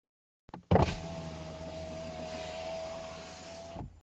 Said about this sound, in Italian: C'è una macchina ferma accanto a noi!